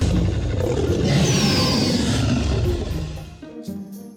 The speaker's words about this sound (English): Stuart crept right behind him. He giggled at first, and then he roared his scariest, loudest